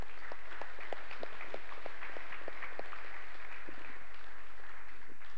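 A church audience applauds to honour a long-time member: a steady wash of many overlapping hand claps with a few sharper individual claps standing out, holding at an even, moderate level throughout with no voices.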